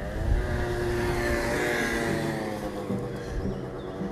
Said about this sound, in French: J'ai des scooters maintenant qui se baladent.